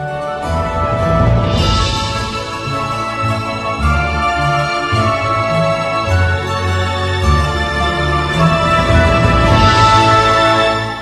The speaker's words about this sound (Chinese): 以后大家如果再听到这样的声音，就可以直接告诉别人这是大键琴的声音。